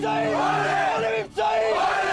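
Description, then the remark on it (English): A group of voices sings and shouts together loudly and continuously, with a brief dip around the middle before the chanting surges back, the sound of a rowdy, happy crowd singing and cheering on a bus they have just boarded. “There's a video of me like in the bus when we just got on the bus. I'm like riling them up and we're singing and we're happy.”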